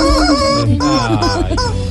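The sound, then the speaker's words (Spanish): A loud rooster crow rings out in a strained, harmonic call lasting nearly two seconds, its pitch wavering and breaking in the latter half, with no talking over it. “No, gallo.”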